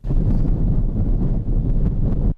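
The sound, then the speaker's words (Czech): Strong wind roars steadily across open snowy ground in the Bruntál region, with fog and snow drifts, a low, blustery rush buffeting the microphone with slight gusts throughout, and no voices. “Dopravu na Bruntálsku zase komplikovaly mlha, vítr a hlavně sněhové jazyky”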